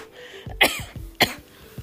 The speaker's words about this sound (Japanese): まあ、不思議なもんで気をつけようと思うほど 咳って止まらなくなるんでまあ人前で本当にみんながあの私の周りをさささって避けるぐらいのひどい咳は してないんですけど